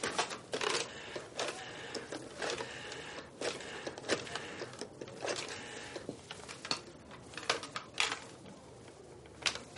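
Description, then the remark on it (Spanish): A telephone number being dialed: a run of sharp, dry mechanical clicks and clacks at an uneven pace over a steady faint rattle, with no voices. “Coge el teléfono y marca.”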